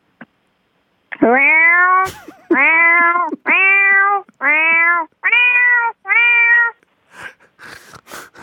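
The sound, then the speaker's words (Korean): A person's voice imitates a cat, giving six loud, drawn-out meows in steady succession, followed by a few faint, scattered noises at the end. “고양이 흉내 지금 해요?”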